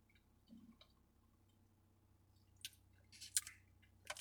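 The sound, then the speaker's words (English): Several short, airy slurping sips of hot green tea, clustered in the second half against a quiet background with a faint low hum. No one speaks. “Team green tea, by the way. I need a I need a sip of this before I continue.”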